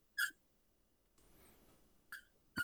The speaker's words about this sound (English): I'm just listening to Squeak Toy in your background i thought I took the only one away that squeaked. Apparently, I have a second one.